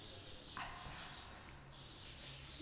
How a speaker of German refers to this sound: Ziemlich geil, wie die Vögel gerade richtig abspatzen da hinten. ich habe mich auch gefragt, äh, äh, hm, war das jetzt auf der Aufnahme oder, oder das kann doch gar nicht sein, das haben wir doch gar nicht mit, mit Vögeln aufgenommen.